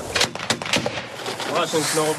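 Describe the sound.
An American-made Mark 19 grenade launcher, fired by a Ukrainian soldier of the 93rd Brigade at Russian positions, fires a quick series of heavy, booming thumps, roughly three or four loud shots, before indistinct voices take over.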